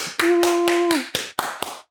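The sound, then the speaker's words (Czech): Brief audience applause for a special guest: about seven sharp, evenly paced hand claps, loud and crisp, with a steady sustained tone running underneath the first few claps before fading out. “Tí, ktorí len počujete, dámy a páni, obrovský potlesk.”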